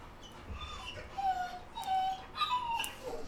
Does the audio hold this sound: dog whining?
yes